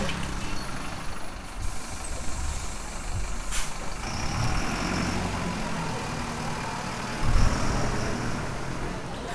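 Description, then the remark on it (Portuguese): A city bus engine idles with a steady low rumble, broken by a sharp hiss of air brakes partway through, with faint high beeping and a brief surge of engine noise near the end. “Se esse ônibus tá aí, pelo amor de Deus.”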